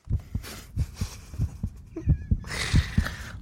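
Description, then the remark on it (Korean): A steady heartbeat sound effect thumps in paired lub-dub beats, deep, roughly ten pulses over a few seconds. A brief whiny tone and a rushing hiss rise over the beat near the end. “지금 이 소리 좋았어요. 심장 소리 좋아요.”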